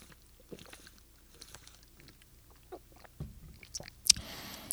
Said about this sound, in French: Je vais prendre une petite gorgée d'eau parce que je m'en viens avec la bouche sèche.